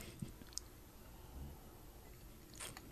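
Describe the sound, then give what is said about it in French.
Quiet mouth sounds of someone swallowing a sip of scotch: a few soft wet clicks and a gulp, then a brief breathy exhale, with no talking. “Hmm, les micros sont bons, on entend, on, on, on, l'entend même descendre.”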